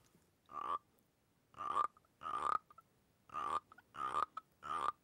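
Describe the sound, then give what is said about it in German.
Six short, rasping frog-like croaks made by rubbing a small vodka shot glass, fairly loud, arriving in an uneven rhythm with brief silences between them and no talking. “Hier zum Beispiel kommt der erste Schnapsglasfrosch, das ist ein Wodkafrosch.”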